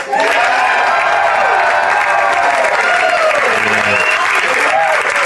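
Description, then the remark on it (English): The studio audience of a live radio show bursts into loud, sustained applause, dense clapping filling the whole stretch with some whoops and cheers rising above it before it holds steady to the end. “It always feels good when you're live to say, let's hear the audience, but people driving around, this is terrible.”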